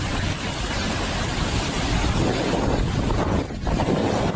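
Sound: rushing floodwater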